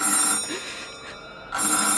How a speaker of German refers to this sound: Das Telefon. Wer kann das wohl sein? Vielleicht hat uns jemand vom Schiff aus gesehen. Nimm doch ab, schnell.